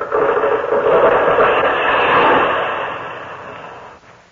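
A loud, sustained crackling and splintering as tree roots tear loose and a tree goes over, a dense rushing noise that holds steady for several seconds before easing off at the end.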